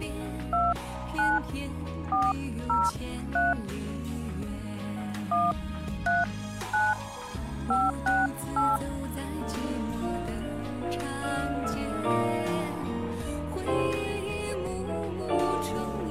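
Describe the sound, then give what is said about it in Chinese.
A quick, uneven string of about a dozen short telephone keypad dialing tones as someone's phone number is dialed, clear and mid-pitched, beeping over steady background music, which carries on alone after the dialing stops. “我们来联系一个 叫做叫什么不不爱我的期待哈，这个名字哈，来联系他”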